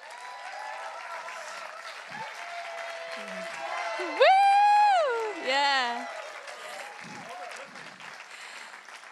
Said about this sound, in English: Give him a hand, you can clap.